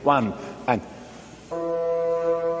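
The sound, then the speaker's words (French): A voice speaks briefly, then after a pause the first bassoon sounds one low, steady sustained note, holding at an even, moderate loudness until the end. “Écoutez le premier basson.”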